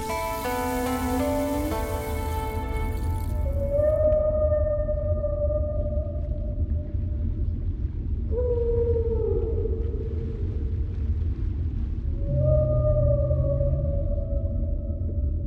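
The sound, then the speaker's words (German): Gray whale calls recorded underwater on the Pacific coast of British Columbia, Canada: several long, wavering moans and sliding tonal cries spaced a few seconds apart, set against a steady low rumbling hiss of the sea, with no voices. “Wale, Grauwale werden uns heute beschäftigen”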